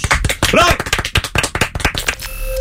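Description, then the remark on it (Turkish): A burst of loud, rapid applause for a listener during a Virgin Radio broadcast: dense, irregular clapping from many hands, with a brief warbling tone early on. It gives way to steady sustained tones near the end. “İkinci anons dinleyicisini alkışlıyoruz.”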